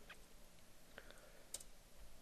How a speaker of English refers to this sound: well, I'm typing real quick.